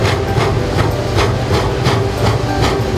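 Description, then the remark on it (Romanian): A narrow-gauge steam train on the Mocănița railway in Transylvania, Romania, the line that once linked Sighișoara and Sibiu, chugs along with steady, rhythmic chuffs of hissing steam over a continuous low mechanical rumble, loud, with no voices. “Te invităm să călătorești în timp cu Mocănița.”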